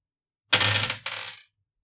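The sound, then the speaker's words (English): Dice, rolled to see whether a horse's kick hits, rattle and clatter across a hard surface in two quick bursts, a longer tumble followed by a shorter settling skitter, bright and crisp with no voices. “So give that roll.”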